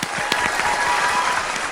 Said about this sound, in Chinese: 大家都掌声鼓励，为大象家族开心。